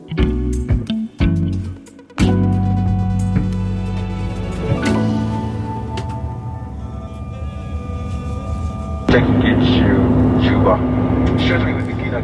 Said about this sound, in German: Ich höre gerade in der Aufnahme, du sitzt in einem Flugzeug. Wo bist du da unterwegs? Da fliege ich gerade nach äh, Juba in den Südsudan